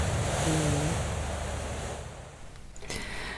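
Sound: sea waves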